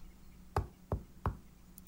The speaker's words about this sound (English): He went to the door and knocked softly.